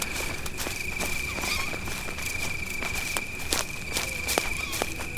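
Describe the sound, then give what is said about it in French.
Quick, uneven footsteps run through dense forest undergrowth between trees, with snapping twigs and rustling leaves at each stride, hurried, while a steady high insect-like whine hums underneath. “J'accélère. Ça griffe, ça tord les pattes et ça pique, mais tant pis, je fonce.”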